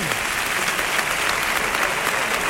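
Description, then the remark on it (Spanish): An audience claps steadily, a dense, even wash of many hands applauding at a constant loud level for a few seconds, with no voices standing out; the applause is for the director of the municipal band and the orchestra. “También un aplauso para Francisco Javier Gutiérrez, el director de la banda municipal y toda esta orquesta magnífica”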